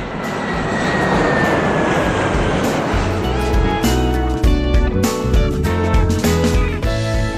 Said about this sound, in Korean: 비행기 이륙 소리를 듣자마자 네. 가슴이 뛰지 않아요? 그렇죠, 어, 뛰죠.